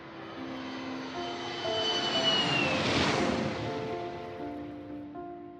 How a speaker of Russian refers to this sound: Несмотря на мои страхи, на паспортном контроле меня не задержали, и я на самолете Boeing 737 компании Трансайра, о которой до этого никогда не слышал, вылетел в Москву.